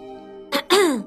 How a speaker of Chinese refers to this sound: 我清了清嗓子，说道